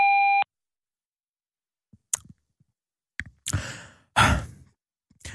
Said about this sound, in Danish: Kan ikke besvare dit opkald. Nå, oh. så er det venligst en besked efter tonen.